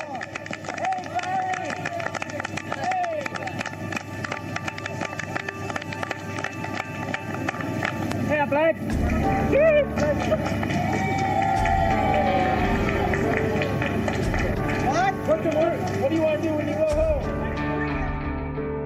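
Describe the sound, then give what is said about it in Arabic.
A large crowd cheers and applauds continuously at Houari Boumediene Airport in Algiers in January 1981 as about 52 released American hostages arrive from Tehran; a dense wash of clapping and raised voices that swells louder about halfway through and stays lively to the end. “وسط تصفيق وترحيب نزل حوالي 52 أمريكياً على أرضية مطار هواري بومدين في العاصمة الجزائرية في يناير من عام 1981 بعدما احتجزوا في طهران لأكثر من 400 يوم ضمن ما يعرف بأزمة الرهائن الأمريكيين”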